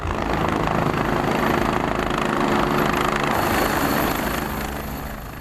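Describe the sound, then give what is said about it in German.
A rescue helicopter drones steadily overhead, as heard near ski areas and hospitals over the holidays, its rotor thrum and engine hum loud and continuous, easing slightly toward the end. No voices are present. “Denn wer in der Nähe von einem Skigebiet oder einem Spital wohnt, hat sie über die Festtage sicher ein paar Mal brummen gehört.”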